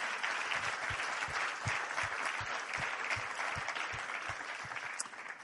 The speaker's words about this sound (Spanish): Den un aplauso al Señor si lo cree. Amén. Aleluya.